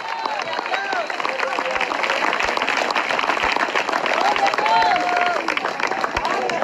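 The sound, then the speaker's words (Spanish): An audience breaks into sustained, dense applause for the Lord, a steady wash of many hands clapping at once, with whoops and cheering voices rising over it throughout. “Le fuerte ese aplauso al Señor en esta hora.”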